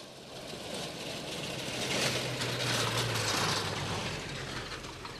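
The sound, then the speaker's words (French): A truck arrives, its engine running with a low, steady rumble under a broad rattling, mechanical noise, growing louder toward the middle and then easing off a little. No one speaks. “Qu'est-ce qui se passe Un camion à cette heure-ci”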